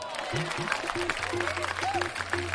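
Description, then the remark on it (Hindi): Audience applause for a performer who recites his poems, a steady wash of clapping hands that fills the whole moment, with low murmuring voices and tonal sounds mixed underneath. “दाम मुझे कुछ देते नहीं ये लोग इनाम में तालियां जरूर लेके जाऊंगा”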